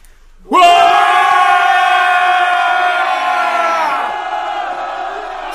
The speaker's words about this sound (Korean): 조정의 대소신료들은 중국 사신이 통과할 때 가만히 서서 바라만 보지 말고 황제의 은혜에 감사하는 마음을 담아서 크게 만세를 부르라. 황제 폐하 만세! 만세! 만세! 만세! 문무 백관과 장수들은 다 함께 목소리를 높여서 환호성을 지르라.